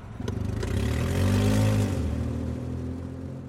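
A car engine revs, its pitch climbing to a loud peak for a second before easing back down to a rumbling idle, with no voices present.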